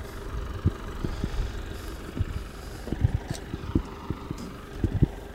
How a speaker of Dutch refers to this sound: Ellen parkeert haar eh, trekker met aanhanger. Eh, het lijkt op dat ze heel precies aan het parkeren is eh, naast een schuur op wielen.